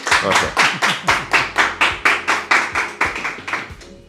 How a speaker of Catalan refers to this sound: A veure, feu-vos notar que es noti que esteu aquí. Aplaudiment. Un aplaudiment, sisplau.